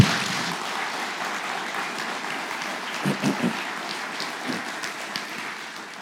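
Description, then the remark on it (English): A crowd at New Hope Community Church claps steadily for a visiting group, a dense, even patter of hands, with a few brief cheers rising out of it partway through before the applause gradually thins. “your willingness to come out and be with us here at new hope community church thank you so much thank you let's hear it up for these guys Woo!”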